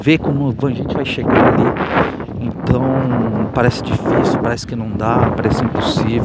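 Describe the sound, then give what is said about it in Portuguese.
A man talks steadily outdoors on the street while gusty wind buffets the microphone, adding a low, rumbling roar beneath his voice throughout. “Desculpa o vento aí, tá galera? O barulho na rua aqui, tá?”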